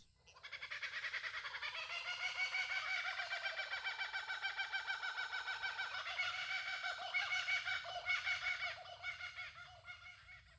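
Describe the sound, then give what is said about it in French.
A kookaburra's loud laughing call fills the whole recording: rapid, chattering cackles that rise and fall in pitch without pause, strong, with no talking. “Non mais attendez, faut que je vous fasse écouter le kookaburra, c'est magique.”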